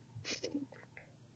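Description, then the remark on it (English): A single sneeze bursts out suddenly, with a sharp breathy intake and a quick spray of air, followed by a few fainter breathy sounds trailing off. “Okay, but you can, bless you. Bless you.”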